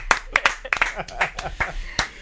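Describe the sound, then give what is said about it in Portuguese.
Quick, irregular hand claps, a dozen or so sharp slaps over about two seconds, as a show's program ends, mixed with voices talking and exclaiming over them. “Palmas, palmas, é, palmas, palmas.”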